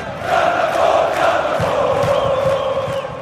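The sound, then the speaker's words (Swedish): A large crowd roars and cheers continuously ahead of Gerhardsson's team's match against Chile, a dense wash of many voices holding steady at a loud level, with occasional louder shouts and whistles rising out of the din. “Skruva upp volymen på hörapparaten Peter och lyssna till folkets vrål.”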